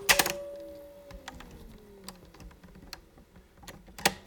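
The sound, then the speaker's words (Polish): Buttons on a tape recorder with a slightly broken cover clunk loudly at the start and again near the end as start is pressed in a demonstration of its mechanism, with a few lighter clicks between, while the motor whirs as a low hum that slowly sinks in pitch. “Też wcisnąłem, silnik się kręci. Dociskam start.”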